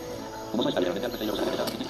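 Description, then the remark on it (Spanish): An angry video game bear, chased by the player, growls in a rough, rumbling roar as it approaches, kicking in abruptly after a brief pause and carrying on steadily for over a second, fairly loud. “Pues yo, escucho algo que camina pues, ahí viene el oso.”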